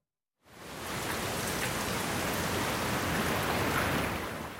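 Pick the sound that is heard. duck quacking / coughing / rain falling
rain falling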